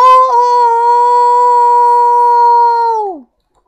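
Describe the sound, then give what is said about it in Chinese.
A single long, rooster-like crowing call holds one steady, fairly high pitch for about three seconds, then slides downward and cuts off, loud and alone with no talking. “在哦哦哦的啼鸣声中，蛇怪开始膨胀，越来越大，越来越大，就像一颗被放在火上烤的栗子一样。”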